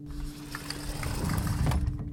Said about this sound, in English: Oh, it's hard to make a dramatic exit with a sliding door.